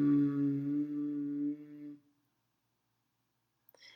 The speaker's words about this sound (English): I'd like you to make a deep sound within yourself. Whatever kind of sound feels comfortable to you, that gives a vibration in your chest. This vibration sends positive energy throughout our body. So you could just go and hum and make the sound of mm.